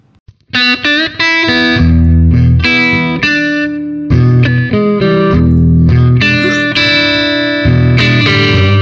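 A loud, short blues intro jingle of distorted electric guitar, heavy chords struck and sustained in a driving series of changes over about eight seconds, with no one talking.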